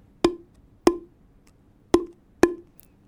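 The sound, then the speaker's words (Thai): Four hollow, resonant pops from a PVC pipe struck vertically down onto an open, flat palm, each with a clear tonal ring, spaced unevenly with a longer pause before the third hit; fairly loud, no talking. “เอาท่อ PVC ท่อนเดิมนะครับ แต่ว่าแทนที่จะตีบนมือแบบเมื่อกี้ ผมลองเอาเคาะบนมือโดยเอาฝ่ามือเนี่ยนะครับแบออก แล้วก็เอาท่อ PVC เนี่ยนะครับ ตีแบบแนวตั้งนะครับ กระแทกบนฝ่ามือนะครับมันจะมีเสียงแบบนี้ครับ”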